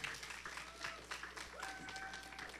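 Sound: audience clapping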